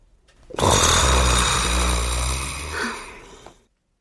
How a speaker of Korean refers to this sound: 그러나 매번 기대는 깨졌다. 갑자기 참았던 호흡이 막혔던 뚝처럼 터지며 맹수의 포효처럼 머리 위에서 울리는 우레소리처럼 그는 다시 가공하리만치 큰 소리로 코를 골았다.